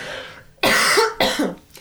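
Two forceful coughs in quick succession, the first longer and harsher, the second shorter, loud with no talking.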